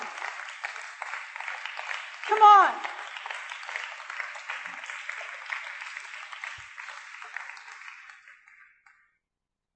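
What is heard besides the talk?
audience clapping hands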